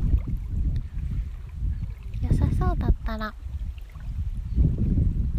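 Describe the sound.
Gentle lake water laps steadily against the shore of Lake Shikaribetsu in Hokkaido, Japan, in a continuous low wash, with light wind, while a person talks over it and a brief bird-like call rises midway.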